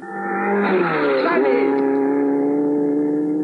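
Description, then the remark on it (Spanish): The Mach 5 race car's engine roars loudly and steadily as Meteoro tests it on the road, its pitch climbing as it revs up and then holding at a high, sustained whine as the car speeds along. “Ese auto de veras corre.”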